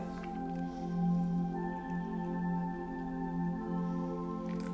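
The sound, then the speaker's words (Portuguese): Water pours steadily into a cup of coffee, a continuous gurgling stream lasting several seconds at moderate volume, with no one talking. “Mais um pouquinho de água aqui no meu café.”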